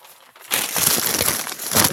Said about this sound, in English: He's always got to crumple up the papers for the uh, for the sound effect.